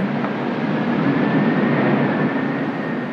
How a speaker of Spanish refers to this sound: Y el chillido del huracán que se aproxima.